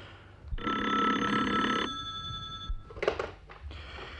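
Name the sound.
telephone ringing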